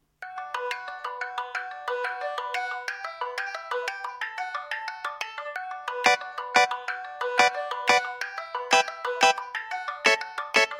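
A music track plays with a bright, chiming melody of quick repeated notes; about halfway through, a steady beat of punchy drum hits joins in. No voices are heard.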